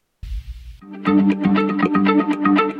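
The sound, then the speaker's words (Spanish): A short low rumble gives way to an upbeat vacation-themed song with a steady, punchy beat and bright sustained instrumental chords, playing loud on the radio with no voices talking over it. “Voy rápidamente a la pausa y regreso, lo dejo con esta canción de vacaciones que suena más o menos así.”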